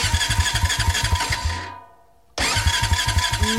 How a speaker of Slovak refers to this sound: No pozor, toto nie je zvuk luxusného terénneho auta, to by asi mladá dáma odmietla sadnúť do takéhoto, ktoré štartuje, vlastne neštartuje. Áno, ale isto ste hneď vedeli, že ide o auto, nie? Snaží sa.